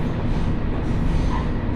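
A Mizushima Rinkai Railway train running from Kurashiki toward Mitsubishi Jiko-mae rumbles along the rails with a steady, dense low roar, heard from inside the car with no voices over it.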